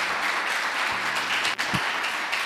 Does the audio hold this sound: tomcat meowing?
no